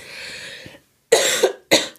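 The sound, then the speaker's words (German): A person coughs: a breathy rasp, a short pause, then two sharp coughs in quick succession, with no talking. “Ich muss kurz husten.”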